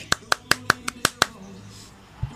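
A short burst of applause welcoming two guests: seven sharp, crisp hand claps in a quick, even rhythm, then quiet with a faint low thump at the end.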